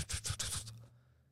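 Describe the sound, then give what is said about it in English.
A voice imitates an old 1961 Rolls-Royce drophead, one of only 50 made, approaching, with a quick run of four or five breathy, scratchy rumbling bursts over a low hum, then trailing off into quiet. Brief and alone. “and it's the sound of his car, of his old Rolls Royce coming.”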